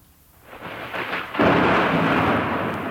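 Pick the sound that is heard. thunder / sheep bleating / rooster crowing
thunder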